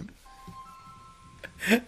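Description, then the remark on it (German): A phone ringtone plays as a steady, sustained electronic tone with a second pitch layered above it, fairly soft, alongside brief bits of voice and a louder noisy burst at the end. “Ich glaube, ich mache den Klingelton mal aus, ne?”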